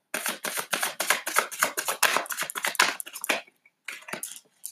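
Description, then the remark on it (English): A rapid run of crisp, papery flicks from a deck of tarot cards being shuffled, dense and continuous for several seconds, a brief pause, then a few more riffling bursts. No talking. “Sorry if you hear me shuffling.”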